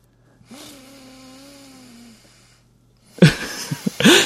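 A person makes exaggerated sleeping breathing sounds, imitating them with one long, drawn-out wheezy, snore-like breath, followed by a burst of louder, rougher breathy noises.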